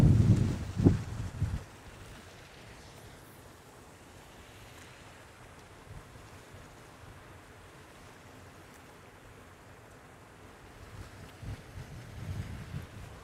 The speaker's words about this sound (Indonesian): rupanya anginnya terlalu anginnya terlalu keras terlalu kuat